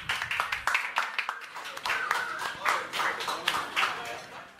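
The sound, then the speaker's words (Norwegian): An audience at a debate event claps steadily for several seconds to thank two speakers, a dense patter of sharp hand claps at fairly even loudness, with a faint murmur of voices mixed underneath. “Vi klapper for dere òg.”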